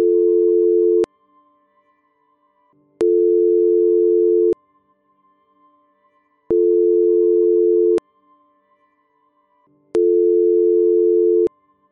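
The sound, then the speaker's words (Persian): A telephone ringback tone rings unanswered, with four steady, low electronic tones of about a second each, separated by regular pauses of a couple of seconds. Clear, with no voices. “من هرگز نفهمیدم چرا به این بوغ میگویند بوغ آزاد کدام آزادی آزادی از چه”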